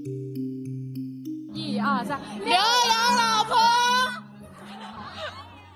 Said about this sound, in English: That's the voices of people screaming out, 老婆 a Chinese word commonly used by husbands to call their wives, but the person being called out is a male celebrity.